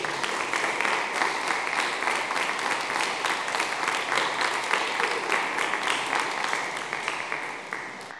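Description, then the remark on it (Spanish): An audience applauds Jesus steadily, a dense, sustained wash of many hands clapping at an even loudness throughout, tapering only slightly at the end. “Den un aplauso fuerte a Jesús.”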